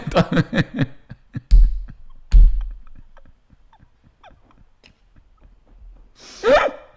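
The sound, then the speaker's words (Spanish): A voice imitates a runny nose being cleared: quick rhythmic sniffs, two sharp, loud snorts, then a quiet stretch before a final harsh nasal blast. “Y escucho escurrirse la nariz, a mí, de ver, a mí me da como una cosita, ¿no?”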